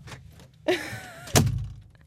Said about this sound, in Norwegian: Der uh, smelta han i døra.